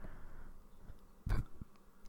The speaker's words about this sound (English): And I just did a little burp, and that's fine.